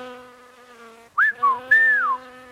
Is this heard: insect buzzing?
yes